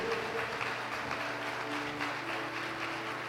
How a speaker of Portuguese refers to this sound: Pode aplaudir o Senhor porque Ele é maravilhoso?